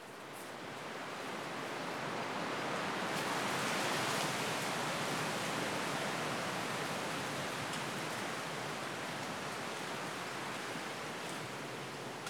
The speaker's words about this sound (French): On va enregistrer le vent qui souffle à travers les feuilles.